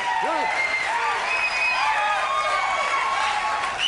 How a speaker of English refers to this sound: As the actor Peter Falk loped onto the stage, his gray hair standing out against his black leather jacket, the audience greeted him with a roar.